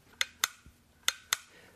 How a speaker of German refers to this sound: Eckiger Schlosskasten, halbkugelförmiger Drücker außen, filigrane Teile innen. Da gibt es einmal die, die Falle, das heißt, das ist dieser Türdrücker, der bewegt diese Falle.